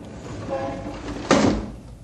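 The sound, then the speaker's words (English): A window in a skyscraper, 40 stories above the street, slides shut with a brief, loud scraping rush that ends in a soft thud, over a steady low hum of traffic noise. “Shut the window, I say.”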